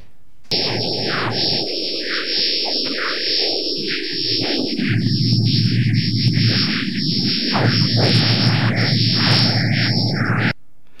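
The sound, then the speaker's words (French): Sonified plasma waves from Jupiter's magnetosphere, a magnetic bubble spanning about ten million kilometres: a dense, eerie wash of warbling, whistling tones that plays continuously for about ten seconds, shifting abruptly in texture partway through as a boundary into the magnetosphere is crossed, with no voices. “On traverse une barrière là. Voilà, en fait, une magnétosphère, c'est une sorte de bulle magnétique.”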